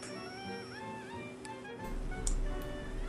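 A field cricket chirps steadily with a thin, repeated ticking trill, alone with no voices over it.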